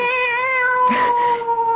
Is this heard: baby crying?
no